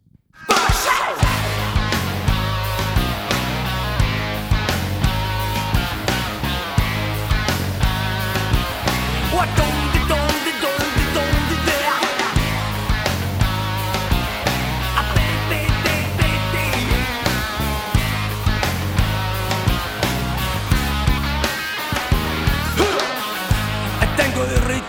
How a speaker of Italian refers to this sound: con due canzoni di una band che nel, sul finire degli anni 90 ha intercettato molto bene eh, un certo tipo di eh, generazione eh, attraverso riff potenti e anche attraverso splendide ballate. Ascoltiamo due loro canzoni di fila.